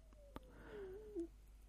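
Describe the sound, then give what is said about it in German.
A faint stomach growl, a low wavering gurgle that rises and dips for about half a second before ending in a short squeak, with a soft tick just before it in otherwise quiet surroundings. “Zum Beispiel dem Knurren meines Bauchs, was wir eben gehört haben.”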